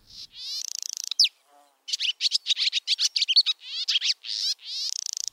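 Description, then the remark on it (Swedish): A barn swallow twitters, a fast run of bright, high chirps mixed with buzzy, rattling trills, with a brief pause before the chattering carries on continuously. “Nu tycker jag att just ladusvalan har ett ganska karaktäristiskt läte och sen dessutom så är det alltid så Hör man det här ljudet så ser man också fåglarna så det är aldrig några konstigheter egentligen.”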